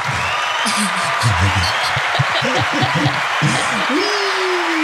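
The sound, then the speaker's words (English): A round of applause as a show's new co-host is introduced, a steady wash of clapping that carries on for several seconds while voices talk and laugh over it. “Can we give a huge round of applause, please?”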